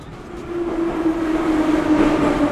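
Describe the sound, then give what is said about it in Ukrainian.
A metro train rumbles across Kharkiv's only metro bridge over the river, at the edge of market trading rows, a steady low roar with a sustained tonal hum that swells louder over a couple of seconds, with faint rhythmic rattling of the wheels. “А на краю торговельних рядів єдиний у Харкові метроміст через річку.”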